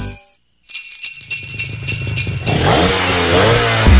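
After a brief moment of silence, an engine starts up and revs, its pitch climbing and the roar growing louder and rougher until it is loud by the end.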